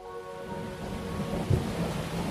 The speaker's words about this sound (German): Mau, Igitt, mit diesem Regen mache ich was mit.